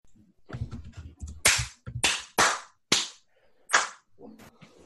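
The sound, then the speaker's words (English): About five loud, sharp hand claps in an uneven rhythm, each with a brief ringing tail, over faint murmuring voices and low noise in the background. “excellent clapping today”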